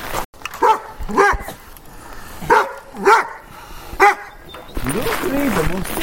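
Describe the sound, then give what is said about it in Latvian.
A large dog and a small dachshund named Frīda bark at Madaras, greeting tourists, in a string of sharp, loud yaps and woofs with short gaps between them, before a person begins talking over the end. “Madarās vispirms mani sagaida lielais suns un mazais taksītis Frīda, kas viesmīlīgi sagaida visus turistus.”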